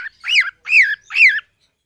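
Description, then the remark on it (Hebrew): Three loud, harsh squawks from a colourful parrot with red, green and yellow feathers and a sharp, hooked orange beak, in quick, evenly spaced succession, each a rising-then-falling screech, alone with no voices around them. “ואיך קראו לו? תוכי.”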